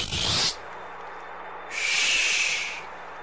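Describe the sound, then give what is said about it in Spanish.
Two harsh, raspy barn owl screeches, a short one followed after a pause by a longer, drawn-out one, loud against a quiet background with no talking. “¿Oyeron la lechuza? Pasó cerquita de mi cabeza la condenada.”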